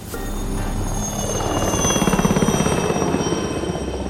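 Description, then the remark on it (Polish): A rescue helicopter drones steadily, its rotor beating in a fast rhythmic chop over a low engine rumble, swelling slightly louder midway and holding strong throughout. “Helikopter by přilečał, tam je rumienicy nuzowy pad, jedna osoba miesze epileptyjski nadpad,”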